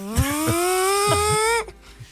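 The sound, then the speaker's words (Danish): A small chainsaw runs with a loud, buzzing whine that climbs steadily in pitch for about a second and a half, then cuts off abruptly, leaving a few faint sputters. “det var en motorsav.”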